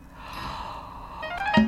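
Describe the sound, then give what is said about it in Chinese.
A voice imitates a yawn as Mr. Lazy wakes in bed: one long, breathy exhale that swells gradually and ends in a brief voiced 'ah', with no other talking. “过了半天，懒惰先生又睁开了眼睛，接着打了两个哈欠，啊，然后又睡着了。”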